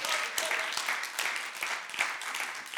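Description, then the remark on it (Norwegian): An audience applauds the worship music steadily, a dense, crackling wash of many hands clapping at once, sustained throughout without pauses and fairly loud. “Så du kan jonne en applaus, da.”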